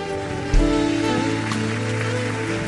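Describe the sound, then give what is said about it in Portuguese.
A church audience applauding the Lord during a morning service: dense, steady clapping that swells in after a brief moment and holds evenly, with sustained low instrumental tones humming underneath. “Aplauda o Senhor, querido”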